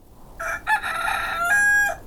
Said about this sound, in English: It's it's Mr. Low Key. Who's that? He's this really cool rooster we met